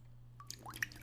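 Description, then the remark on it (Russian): A few quiet water drips plink one after another with bright, rising tones, over a faint steady low hum in an otherwise still background. “Вода. Жидкость без цвета, запаха и вкуса.”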